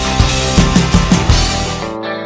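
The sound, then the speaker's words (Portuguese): A rock song, the opening track of an album released on 12 July 2000, plays loud and dense, full band with a steady pounding drum beat under layered guitars, then the sound drops away abruptly near the end. No one speaks. “Estamos ouvindo aí ó, a música que abre o disco”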